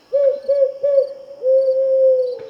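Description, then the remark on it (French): An owl hoots three short, even notes in quick succession, then gives one long drawn-out hoot. The calls are clear and fairly loud, with no other sounds around them. “Le fan allait faire un pas vers elle quand la chouette le ramena à l'ordre.”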